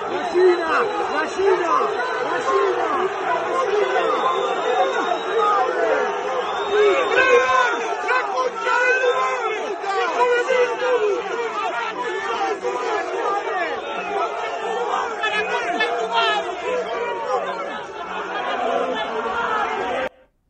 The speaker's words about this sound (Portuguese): Foi xingado, foi vaiado, pela torcida do Boca Juniors.